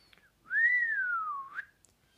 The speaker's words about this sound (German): Dr. Hart pfiff leise durch die Zähne.